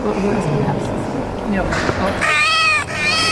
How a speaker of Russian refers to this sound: Они распространяют радость и являются вспомогающим средством в терапии. Например, робот-кот Юстокат успокоит вас своим мурлыканьем